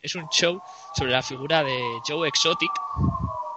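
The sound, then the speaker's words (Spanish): Sirens of a police convoy wail steadily in the background, a sustained tone that slowly rises in pitch as the vehicles pass outside, while a person keeps talking over it. “no es una ambulancia, que es un convoy de policía”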